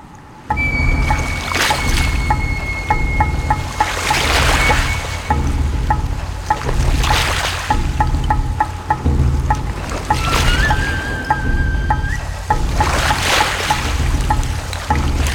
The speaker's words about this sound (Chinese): 他们挑选了一艘看起来比较没有被破坏的船， 还能够在海面上漂浮着。于是他们上了船，拿起了船桨，开始用力的划，用力的划，往恶魔岛的方向前进了。